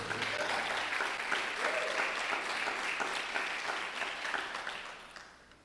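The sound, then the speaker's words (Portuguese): A crowd claps together in praise of the name of the Lord in a dense, steady wash of applause that holds strong for several seconds, then thins out and fades away at the end. “Você pode aplaudir o nome do Senhor por causa disso?”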